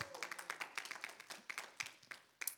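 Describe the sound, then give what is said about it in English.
An audience claps their hands as praise to the Lord, a dense, uneven patter of many sharp claps overlapping at a fairly quiet level, with no one talking. “Y'all give the Lord a hand clap of praise.”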